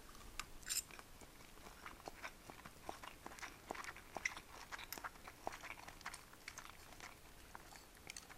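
Crisp crunching of someone biting and chewing crunchy food while eating lunch, a steady run of sharp little cracks and clicks repeating irregularly for several seconds, with no talking.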